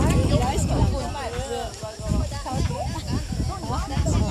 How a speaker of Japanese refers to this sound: えー、っとまあこんな感じなんか聞こえるでしょ水場がねあったりするんですよ